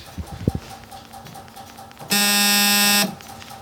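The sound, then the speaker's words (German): A few soft clicks and thumps as a large power supply is switched on, then a telephone rings with a harsh electric buzzer tone: one loud, steady burst lasting about a second. “Das Telefon klingelt.”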